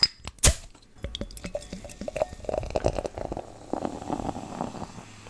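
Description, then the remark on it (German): A bottle cap pops off a bottle of 5.2% hop wheat beer with a sharp crack, then the cloudy beer pours and fizzes steadily with plenty of carbonation, a dense crackle of bubbles, with no talking. “so wie man hört, einiges an Kohlensäure.”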